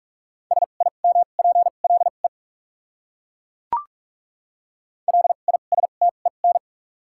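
Rapid Morse code beeps at 45 words per minute with double character spacing, a steady mid-pitched tone keyed in quick dots and dashes, forming two bursts separated by a short pause and a single sharp click.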